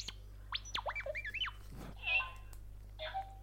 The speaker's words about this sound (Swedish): Roboten piper och, och eh, tuter lite grann.